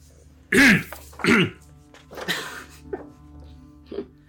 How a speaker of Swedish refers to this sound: Vad var det för host?